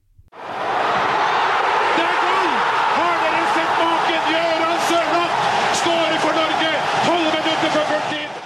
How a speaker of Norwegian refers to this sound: Vi skal nå ta en jingle. Om vi jubler for seier, eller er eh, forbanna eller skuffa for at vi har avgitt poeng, eller hva det er, det får dere vite etter denne jinglen.